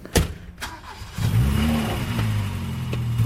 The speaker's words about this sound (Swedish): Åke hoppar in i, i bilen, mamma sambo, och kör iväg mot Östersund